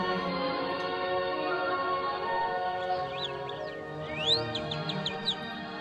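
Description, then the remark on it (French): A nightingale sings a run of bright, quick whistled notes, repeated in a rapid series near the end, fairly faint against a steady humming background with no one talking. “Écoutez l'oiseau. C'est un rossignol.”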